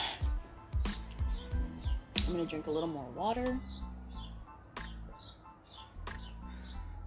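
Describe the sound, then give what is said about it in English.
Many birds chirp and tweet all around in short, scattered bursts throughout, faint, while a person talks outdoors over a soft outdoor background. “There's a lot of birds chirping around me.”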